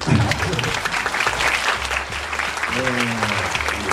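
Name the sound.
audience applause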